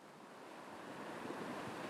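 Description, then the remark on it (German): Steady rush of big surf at Puerto Escondido, waves breaking and washing onto the shore, a broad hissing roar that swells slightly louder toward the end, with some wind noise and no voices. “Wetten, du findest dort riesige Wellen oder Olas?”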